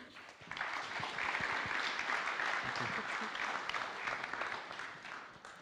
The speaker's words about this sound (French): Bienvenue, on peut l'applaudir.